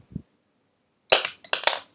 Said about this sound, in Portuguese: espero que tenham ouvido isto, isto foi eu a mandar a puta da caneta para o chão.